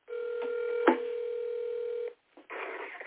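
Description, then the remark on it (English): A telephone tone hums steadily for about two seconds, broken by a sharp click, then cuts out; after a brief silence, a rough burst of line noise follows as the call connects. “Should have called on the other phone.”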